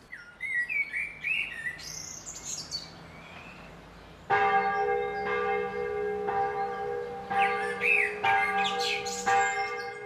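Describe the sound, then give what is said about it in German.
Birds chirp and sing outdoors, then a large parish church bell begins tolling for morning prayer at 6 a.m., starting at about four seconds, its deep ringing tones sustained and repeating while birdsong continues over it. No one speaks. “Während die Glocke der Pfarrkirche zum Morgengebet läutet, werden bereits die ersten Blüten auf das Motiv gelegt.”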